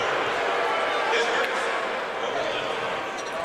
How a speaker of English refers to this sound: Crowd's booing. I'm not sure why.